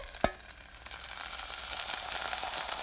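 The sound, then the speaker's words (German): Crackling and sizzling of choux dough in a hot cooking pot whose bottom is slightly burnt with dough sticking, a steady dense hiss with scattered small pops, starting after a single sharp knock against the pot. “Das knistert. Und das, das ist mein Kochtopf.”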